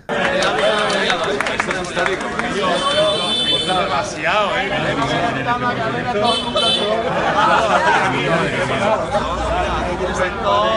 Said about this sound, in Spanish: Primero, escuchar cómo los vehículos pitan, porque ni siquiera pueden pasar. Han conquistado la calle todos.